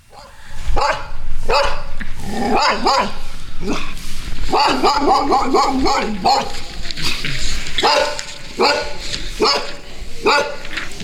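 Dogs bark loudly and repeatedly over about eleven seconds, a busy overlapping stretch of sharp barks and a few higher yips, continuous with hardly a pause.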